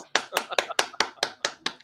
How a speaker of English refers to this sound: I don't know why I'm clapping.